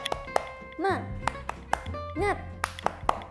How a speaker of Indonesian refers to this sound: Satu, dua, tiga. Tepuk semangat. Semangat.